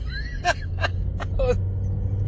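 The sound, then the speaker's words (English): Four short, breathy vocal bursts in quick succession, the catching gasps of a person starting to sneeze, over a steady low rumble. No words are spoken. “I cut myself off right as I started sneezing, but I wasn't done with the word.”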